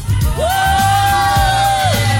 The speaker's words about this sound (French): il y a du monde, mon Dieu, mais t'imagines, il y a du monde qui nous applaudit, je comprends pas.